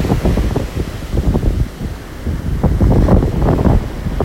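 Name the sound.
rough sea waves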